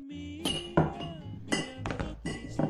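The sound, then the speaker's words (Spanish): Glass bottles of strong liquor (puro fuerte) clink together in a bar as a bottle is passed to customers, several times in quick, irregular bursts, bright ringing taps with lingering tones, loud and unaccompanied by talk. “por favor pasarles una botella de puro fuerte a los señores.”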